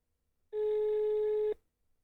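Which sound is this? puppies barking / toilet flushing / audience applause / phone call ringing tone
phone call ringing tone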